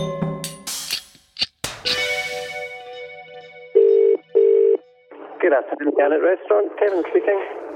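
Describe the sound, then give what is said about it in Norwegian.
Two short, steady ringback tones of an outgoing phone call from Norway to Scotland sound over the line after some clicks and handling noise, followed by a person starting to talk. “så ringer jeg en tur eh, til Skottland, jeg.”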